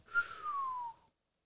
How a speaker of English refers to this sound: … took a deep breath and whistled.